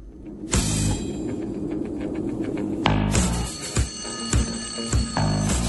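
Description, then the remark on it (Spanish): Loud, clattering alarm clock bells burst in after a brief moment and ring continuously, then a second wave of ringing joins with rapid pulsing bursts. No one speaks. “un despertador. Exactamente”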